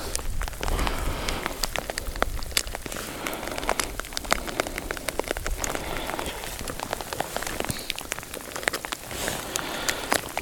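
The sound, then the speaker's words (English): Steady rain pattering onto hard surfaces outdoors, with dense, irregular drops tapping over a constant wash of rainfall. No one speaks. “Where does this rain come from?”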